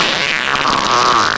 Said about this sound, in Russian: Извините, конечно, но вы пердите.